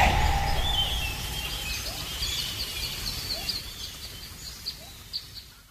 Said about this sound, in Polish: Jest już las, są już ptaki.